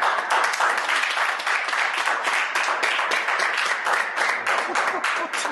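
A crowd of fans applauds steadily at a hotel, a dense, even wash of many hands clapping for several seconds at a fairly loud level, with no voices standing out.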